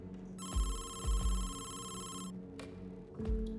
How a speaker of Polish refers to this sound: Ktoś dzwoni do niej z jej własnej komórki, która znajdowała się w torebce. Cisza po drugiej stronie słuchawki była nie do zniesienia. Podczas spisywania dalszych zeznań, głuchy telefon zadzwonił ponownie.